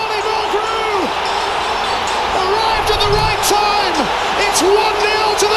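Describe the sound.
A large stadium crowd of Celtic football fans sings a repetitive, rhythmic chant in unison after Celtic score against Glasgow Rangers, a loud wall of massed voices with a bouncing melody and scattered whoops rising over the steady roar.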